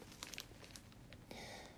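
Close, crisp rustling and crinkling of paper being handled and gathered, with short bursts of crackle and a longer sustained rustle near the end.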